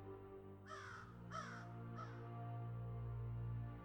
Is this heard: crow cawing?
yes